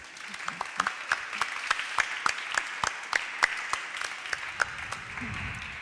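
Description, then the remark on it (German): A small audience claps steadily, with distinct individual hand claps forming a sparse, moderately loud round of applause that carries on throughout, welcoming a writer guest onto a stage. “Herzlich willkommen und einen kleinen Dankeschön. Applaus”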